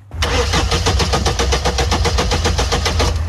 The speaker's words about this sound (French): La voiture qui ne démarre pas, ça vous est arrivé récemment Si ça peut vous consoler, vous n'êtes pas le ou la seule.